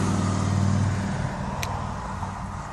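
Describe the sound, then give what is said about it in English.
Cars rush past on a road beside the listener, a loud engine rumble swelling and then fading into a steady wash of traffic noise, with no one speaking. “I, I view from the most one of the most beautiful places in the world, and I'm beside a road, and you're listening to cars.”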